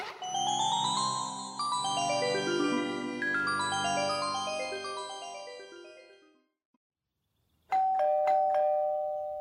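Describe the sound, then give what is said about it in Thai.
A loud electronic doorbell plays a long descending chime melody, falls silent for a moment, then is pressed again and starts ringing once more. No one speaks. “โอ้ยรู้แล้วรู้แล้วรู้แล้ว รอแป๊บหนึ่งไม่ต้องกดรัวขนาดนั้นก็ได้”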